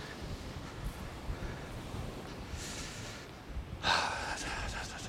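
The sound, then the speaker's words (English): Sea waves rush and hiss over a steady, rumbling wind at the beach on a cold, rainy July day, with a louder surge of surf washing in toward the end. The wind buffets the microphone. “A cold July Day by the Sea”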